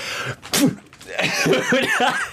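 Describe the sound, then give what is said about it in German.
A person fakes a sneeze with one sharp, breathy burst, followed by a run of short voiced, wavering sounds. “Müssen niesen? Im Helm innen.”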